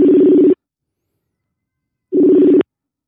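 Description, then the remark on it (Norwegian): Two bursts of a phone's ringback tone while calling someone, each about half a second, separated by a long silent gap, clear and moderately loud with no talking. “Det ringer i hvert fall.”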